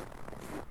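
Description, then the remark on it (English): A raspy crunch of a footstep pressing into packed snow while hiking a trail in Anchorage, Alaska, in winter, recorded with a handheld recorder; brief and gritty, with no voices. “It was still the winter season, and the snow that was packed onto the ground amplified my footsteps.”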